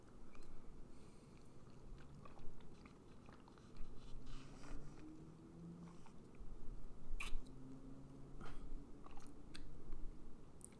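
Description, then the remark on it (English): Someone sips a blended iced vanilla bean frappuccino: quiet wet mouth clicks, swallows and faint icy crunches spread irregularly over about ten seconds, with no talking. “Uh, let me let me take a sip out of it, and then I'll give you a better uh, better description of it.”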